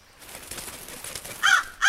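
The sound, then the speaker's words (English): Two loud, harsh raven caws ring out near the end, following a stretch of faint background noise; the second call is cut off abruptly. “You are Raven.”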